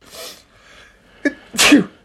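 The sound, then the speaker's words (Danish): A person sneezes into their arm: a breathy, hitching inhale followed by one loud, burst-like sneeze, with no talking. “Jeg nøs i mit arme, jeg nøs i mit arme, vil jeg lov at sige.”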